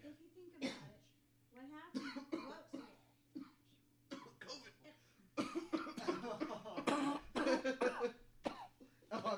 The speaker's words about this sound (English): just coughing. I'm sorry. I was my vape stick. My vape stick caught, caught me coughing.